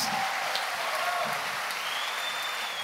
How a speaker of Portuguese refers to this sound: Vamos dar um aplauso a essa família linda, poderosa, para a glória de Deus.